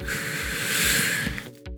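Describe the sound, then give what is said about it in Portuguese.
A long, steady breath drawn in through the nose to fill the lungs during a guided breathing exercise with eyes closed, airy, lasting over a second before tapering off, with a soft low hum underneath and no one speaking. “Enche o pulmão de ar, respira.”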